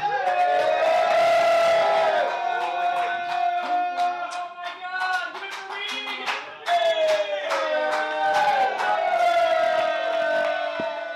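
A crowd at a stand-up comedy show cheers and whoops loudly for about eleven seconds, many voices yelling and hollering over one another in sustained, high-pitched bursts without letting up.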